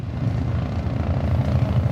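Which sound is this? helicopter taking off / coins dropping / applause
helicopter taking off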